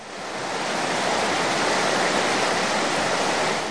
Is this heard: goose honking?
no